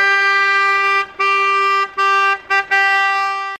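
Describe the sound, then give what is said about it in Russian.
A mobile shop van's horn honks loudly as it enters a village to call local residents, in a run of long, steady blasts broken by brief gaps, with one quick toot near the end. No one speaks. “Въезжая в деревню, автолавка громким сигналом заявляет о себе, созывая местных жителей.”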